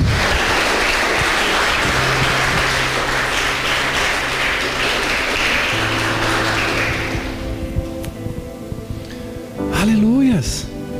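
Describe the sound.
A church audience bursts into dense, sustained applause to God lasting several seconds, with steady organ or keyboard tones underneath; the clapping fades out and a voice begins speaking over the lingering music.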